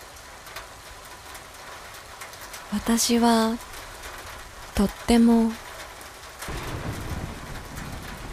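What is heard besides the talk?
rain falling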